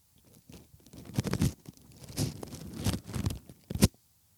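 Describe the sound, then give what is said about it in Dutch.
A rose rubbed over a microphone for an ASMR segment makes rustling, crunchy scraping bursts in uneven waves, building to a sharp crackle near the end, with no talking. “We hebben de hele tijd de roos, dan ga ik de roos over de micro strijken.”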